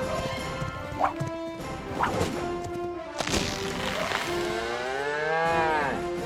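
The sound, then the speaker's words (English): A cow moos loudly, a long drawn-out bellow that rises and bends in pitch, with a few brief knocks and clatters mixed in along the way, in a TaxSlayer radio advertisement. “Saddling up and chasing down. Look at that sweet moolah! That big old cash cow.”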